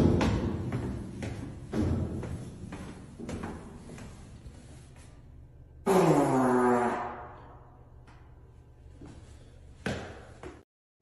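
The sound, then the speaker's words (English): A single loud, buzzy fart in a stairwell, about a second long and tapering off at the end, following a run of dull thumps and knocks like footsteps on stairs. “stairwell farts”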